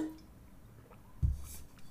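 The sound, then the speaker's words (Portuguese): A quiet sip of water taken by a speaker during a live stream: a soft wet gulp about halfway through, followed by a brief low swallow. Otherwise near silence, with no talking. “Deixa eu tomar uma água.”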